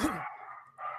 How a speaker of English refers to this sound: I don't know if you can hear dogs barking, but somebody might be at the door.